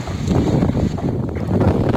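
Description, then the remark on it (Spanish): Loud, steady roar of wind whipping through a forest fire in Valencia, at the moment the wind began and drove the fire out of control, a dense low rumble with rough gusting surges and a faint hiss above, and no voices. “Ese era el sonido de, ese momento en el que comenzaba el viento y descontrolaba el incendio.”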